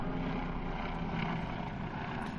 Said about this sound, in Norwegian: Nå kommer det et helikopter.